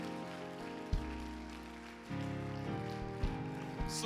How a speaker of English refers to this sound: Oh, would you give the Lord a hand clap of praise tonight? He's able.